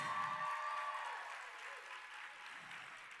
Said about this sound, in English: Can we just give her one more round of applause?